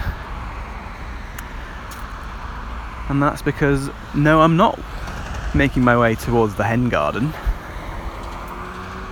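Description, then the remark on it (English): Steady road traffic on the A606 in Oakham, Rutland, rumbles in the background throughout on a scorching hot July morning, a continuous low wash of passing cars, while a man walking along the road talks over it. “You can probably hear the sound of cars in the background”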